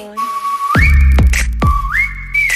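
A bright whistled melody slides upward between two held notes, repeating twice over heavy booming bass hits and a pop beat, loud, with no voices.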